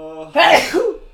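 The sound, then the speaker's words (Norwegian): A single loud sneeze bursts out after a brief voiced intake, with a sharp noisy explosion that trails off quickly. “Prosit, Takk.”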